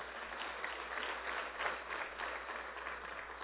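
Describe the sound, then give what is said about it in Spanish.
A crowd claps for the Lord in steady, sustained applause, a dense crackle of many hands for the full few seconds, with no voices standing out. “Démele un fuerte aplauso al Señor.”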